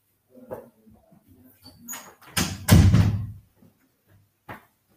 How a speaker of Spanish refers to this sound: Entonces ahí, dame un segundo que voy a cerrar la puerta.